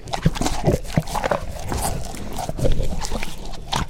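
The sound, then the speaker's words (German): Cows crunching and chewing apples, wet irregular bites and mashing sounds over a low steady background, with occasional snuffling breaths between chews. “Kühe beim Apfelfressen.”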